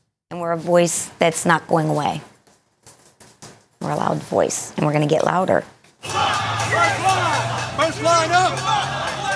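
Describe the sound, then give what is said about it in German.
Militia members, recording themselves during street riots in Charlottesville, Virginia, in summer 2017, shout loudly in bursts, then give way to a dense, chaotic crowd roar with overlapping yells and a steady low rumble, intense. “Es zeigt sie bei den Ausschreitungen in der Stadt Charlottesville in Virginia im Sommer 2017.”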